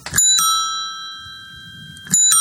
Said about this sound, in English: Also, the what I call the the ding dong bell, which is the two tone bell, which you push the lever and you get one tone of bell, and you let it go and it strikes and you get a different tone of bell.